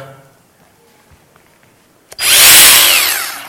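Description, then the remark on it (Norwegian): After a quiet pause and a sharp click, a power drill made especially for concrete, taken from a tool bag, roars to life, revving up loudly and whining at high pitch for over a second before starting to wind down. “Den er uh, eh, spesielt til uh, eh, betong, da.”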